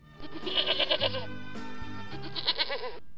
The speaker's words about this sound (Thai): นั่นอะไรนั่นน่ะ มันเป็นอะไร ออกไปให้พ้นเจ้าสัตว์สกปรก เป็นแพะนั่นเอง